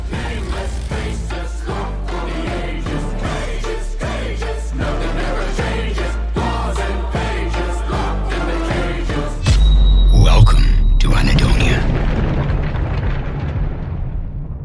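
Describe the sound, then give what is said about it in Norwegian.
Loud, driving rock-style music from a trailer for a stage musical, with a pounding beat, building to a massive booming hit and whooshing sweeps near the end before ringing out. “jeg har tatt med lyden fra traileren til dere”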